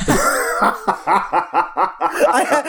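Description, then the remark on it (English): A cough breaks into a run of rhythmic, breathy laughter, with about six or seven fairly loud bursts of chuckling that mix coughing and snickering together. “I had to cough, and then I just couldn't swallow the cough or the laugh.”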